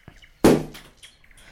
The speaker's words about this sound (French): Ah, ça, c'est le bruit des bouchons de bouteilles de champagne. Alors, au début, c'était un bruit rassurant, mais c'est un bruit qui est vite devenu irritant quand il a commencé à dangereusement se répéter